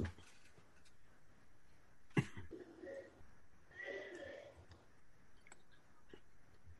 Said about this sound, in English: I thought I heard a weird little growl. It's someone out on the street coughing.